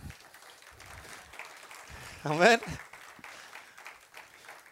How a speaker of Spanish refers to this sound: si le va a aplaudir, por favor, apláudale bien.